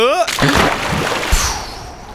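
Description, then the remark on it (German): A short voiced cry gives way to a loud burst of splashing water as people jump in, followed by churning sloshes and a second splash before the sound settles. “Dann, tschüss, liebe Hörer, wir springen jetzt.”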